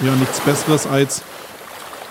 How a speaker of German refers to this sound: Ihr hört ja im Hintergrund die Wellen, also das Wasser ähm, spült mir so um die Füße.